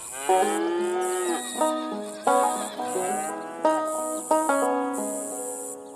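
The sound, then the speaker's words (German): Cows on a farm moo repeatedly, about five long, drawn-out lowing calls in quick succession, with the steady high-pitched chirring of crickets running behind them. “Es blöken Schafe, muhen Kühe und zirpen die Grillen.”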